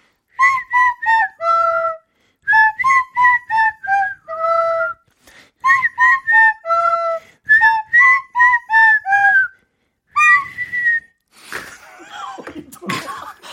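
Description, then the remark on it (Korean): Radio hosts Nam Chang-hee playing a pipe (piri) and Yoon Jung-soo whistling a lively pop tune as the answer to a humming quiz, in short bouncy phrases with brief pauses, fairly loud, ending in breathy noise and a burst of laughter-like sounds. “자, 제가 피리를 연주할 테니까요. 윤정수 씨는 휘파람을 불어주세요.”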